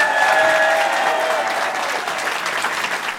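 A crowd at République claps steadily and loudly for a few seconds, a dense patter of applause with a couple of sharp whistles cutting through near the start before it levels off.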